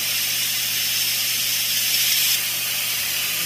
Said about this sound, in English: Gotta relieve the pressure until absolutely no more steam comes out. think we're at the point now where we can just open the valve all the way. Just let it finish steaming out.